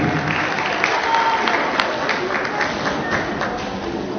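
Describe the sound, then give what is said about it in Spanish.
Steady applause from a sizable audience for the directors of the commune's schools, invited onto the stage, many hands clapping in a dense, continuous patter that holds for several seconds, with faint voices mixed underneath. “Un aplauso para ellos directoras, directores de los colegios de la comuna.”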